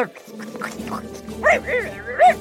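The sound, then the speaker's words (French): A dog barks twice, two short, fairly loud yelps about a second apart, after a quieter stretch of muffled sounds over a steady low hum. “Mais les vœux ne s'accomplissent pas toujours le chien sauta sur lui au point de faire complètement disparaître le super-héros.”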